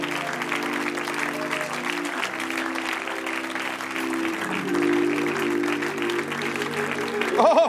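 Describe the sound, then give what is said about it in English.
An audience claps for the Lord steadily for several seconds, a dense wash of hand clapping, with a sustained organ or keyboard chord ringing underneath and swelling slightly near the end. “Oh, could we give the Lord a hand clap in this place today?”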